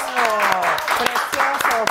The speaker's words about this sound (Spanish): Sí, que aplausos, maestro.